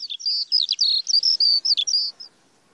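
A bird sings a quick, bright phrase of high chirps and warbling trills, clear, running for about two seconds before falling silent. No voices or other sounds.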